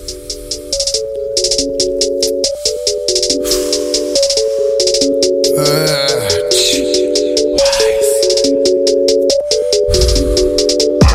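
An unreleased rap track starts up and plays loud and steady, with a repeating synth melody over deep bass and rapid ticking hi-hats. There are no vocals yet.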